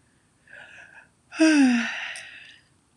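A single yawn: a short breathy intake, then a longer, louder voiced exhale whose pitch slides downward before trailing off. No one speaks.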